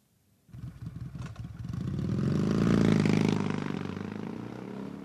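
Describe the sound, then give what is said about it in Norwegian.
A motorcycle engine in city traffic in Nairobi, Kenya, sputters into a rhythmic, throbbing idle, then revs up to a loud, rising roar before easing back to a steady drone; no one speaks. “Mange er så lei av å ikke komme fram i trafikken i bil at de velger å kjøre motorsykkel.”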